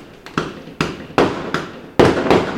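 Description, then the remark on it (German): A rapid series of fireworks bangs outdoors, about six sharp explosions each followed by a brief decaying echo, fairly loud and irregularly spaced, with no voices. “Könnten Sie aufhören mit dem Feuerwerk?”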